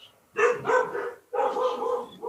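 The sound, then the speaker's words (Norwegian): Dogs bark in the background in two bursts of loud, yelping barks separated by a short pause, with no voices over them. “Har ni hundene i bakgrunden eller?”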